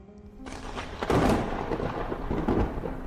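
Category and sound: nature, thunderstorm sound effect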